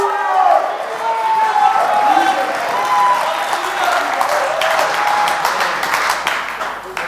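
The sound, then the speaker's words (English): An audience erupts in loud, sustained shouting and applause, dense overlapping cheers and clapping with energetic crowd noise throughout, continuous. “Come on, somebody needs to shout like you've never shouted before.”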